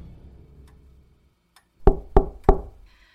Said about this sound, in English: before the two you can finish this conversation, there is a little knock at the door